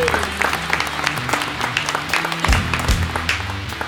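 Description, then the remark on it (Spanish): An audience breaks into sustained applause for a presenter after his section of the show, a dense, steady patter of many hands clapping at fairly high volume for several seconds, with a low murmur of voices underneath. “Un aplauso para”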